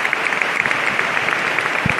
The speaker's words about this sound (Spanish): Pues ahora aplauden todos los hermanos que se congregan aquí en El Salvador, las palabras del hermano mayor